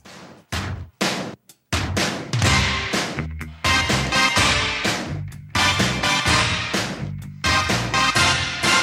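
Several sharp, loud orchestra-hit stabs, a one-second sample taken from classical music, burst out in quick succession, then a dense 1980s pop film-soundtrack arrangement kicks in with the punchy hits recurring throughout. No one speaks.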